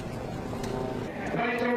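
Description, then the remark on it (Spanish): A hearse carrying the body of Shinzo Abe home rumbles past, its steady engine drone swelling slightly louder toward the end of the brief moment. “El cuerpo de Shinzo Abe regresa a casa en un coche fúnebre.”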